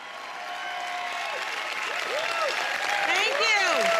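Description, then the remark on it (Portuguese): A large crowd at an Apple presentation applauds steadily as celebrities come on stage, a dense wash of clapping that swells slightly toward the end, with scattered cheers, shouts and whistles rising and falling over it. “Cada um atrai aplausos e uma tempestade de flashes de câmeras da multidão.”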